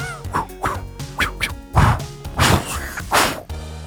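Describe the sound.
Two people's voices imitate a kung fu fight with a rapid string of vocal whacks, whooshes and squawking hits, loud, about seven or eight bursts in under four seconds.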